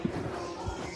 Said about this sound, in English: Sorry that that noise you heard is me sanitizing this microphone because that's what we got to do nowadays.